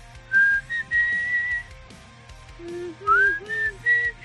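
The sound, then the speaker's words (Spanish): A clear whistled melody of long, sliding notes plays in two phrases over soft backing music with a steady low beat, like the gentle intro of a rock ballad. No one speaks. “Un silbido, el silbido más famoso.”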